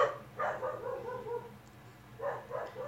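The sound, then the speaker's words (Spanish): Dogs bark in a few short clustered bursts, one near the start and another near the end, over a steady low background hum, with no one speaking. “ya sé, hay muchos ladridos.”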